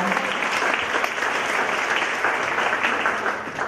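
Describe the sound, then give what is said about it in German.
A crowd applauds a band that has come to the front, clapping steadily for a few seconds, a dense, even patter of many hands at a fairly loud level with no clear individual claps standing out. “Vielleicht nochmal einen kleinen Applaus für die.”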